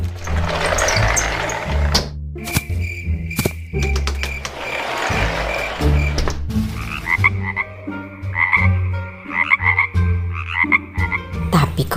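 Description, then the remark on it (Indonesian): A group of frogs lined up by a window croak steadily and loudly, their overlapping raspy calls forming a dense, rhythmic pulsing with no voices present. “Ada sekawanan katak yang berbaris di sana.”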